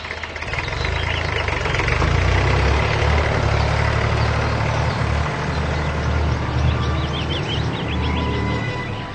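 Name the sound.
car engine running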